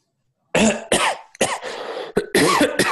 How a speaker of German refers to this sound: Und dann hustet er in die Hand rein. Nein. Ja, nein mhm. Und ins Mikrofon.